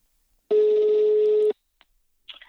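A single steady ringback tone sounds for about a second, loud and clear, followed by silence and a brief faint click before a short burst of noise at the end.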